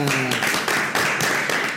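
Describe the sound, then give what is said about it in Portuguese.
A dense round of applause from a crowd, steady and fairly loud throughout, with a brief voice or cheer audible near the start. “Então agora uma salva de palmas para ele que esteve aqui essa semana”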